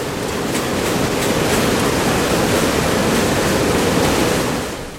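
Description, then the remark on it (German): A weaving loom runs in a loud hall, a dense, steady mechanical roar with faint rapid clattering on top, constant for about five seconds before easing slightly at the end. No one speaks. “Dass es keine Hörschäden gibt, gehen wir raus aus der lauten Halle mit dem Webstuhl und in die ehemalige Stube vom Firmengründer.”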